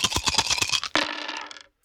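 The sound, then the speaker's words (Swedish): A small six-sided die, rolled for a character trait in a game, clatters across a hard tabletop in quick, irregular rattling taps, then gives one sharper knock and a short skittering roll before settling into silence, landing on a three. Fairly crisp, with no talking. “Okej, jag kan ta en T6 på karaktärsdrag.”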